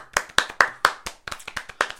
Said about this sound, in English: Like, can we get a little round of applause?